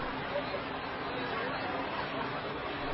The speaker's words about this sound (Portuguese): Jesus desceu do monte com eles e parou com muitos dos seus seguidores num lugar plano. Uma grande multidão estava ali.